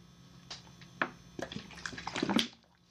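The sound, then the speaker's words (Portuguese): Someone gulps water in quick, wet swallows, several splashy pulls bunched together over a couple of seconds, with no talking. “Caralho, tô tá mamando muita água.”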